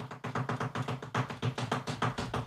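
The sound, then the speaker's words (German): A quick, rhythmic series of hand taps on a surface, fairly loud like an improvised drumroll, steady strikes roughly every fifth of a second with no talking. “Wir müssen hier erstmal vielleicht einen kleinen Drumwirbel machen, denn.”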